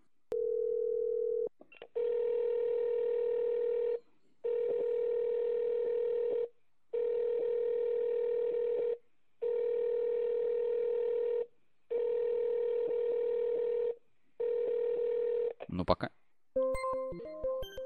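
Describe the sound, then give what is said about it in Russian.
A steady, buzzing telephone ringback tone repeats in long pulses with brief gaps, about seven times, loud, as a number is dialed over SIP telephony and goes unanswered, then cuts off into a short jumble of electronic beeps. “Так, звонок, набираем номер.”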